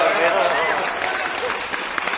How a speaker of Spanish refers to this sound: ¡Aplausos!